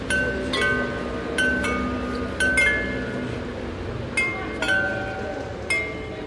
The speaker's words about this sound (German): die hören wir jetzt schon, während wir auf die Kirche zulaufen, ganze 37 Glocken aus Meißner Porzellan.